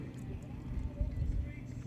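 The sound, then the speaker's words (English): A motorbike rolls by with a low, steady engine rumble that swells slightly mid-way, beneath faint murmuring voices. “Um, got a little motorbike, motorbike rolling by.”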